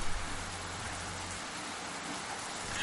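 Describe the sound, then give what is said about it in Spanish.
Steady rain falls outdoors, recorded from a bedroom balcony in a small town of about 7,500 inhabitants, in a constant, even hiss with no distinct drops standing out, heard alone at a moderate level, with a faint low rumble underneath during the first second or so. “La lluvia que nos acompaña de fondo la he grabado en el balcón que tengo en mi habitación.”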